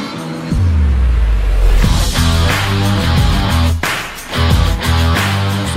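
Loud, upbeat intro music plays without any talking, built on steady bass and sustained tones, punctuated by several sharp percussive hits and bright cymbal-like washes.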